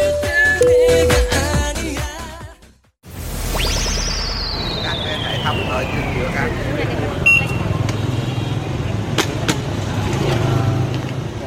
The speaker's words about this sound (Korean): 베트남 하노이의 노상 식당에 도착했습니다. 여기서 닭고기로 육수를 낸 쌀국수를 한 그릇 먹어보겠습니다.